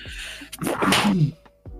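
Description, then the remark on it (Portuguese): A single forceful sneeze bursts out with a sharp inhale before it, followed by a brief quiet tail and a faint click. “Santinho.”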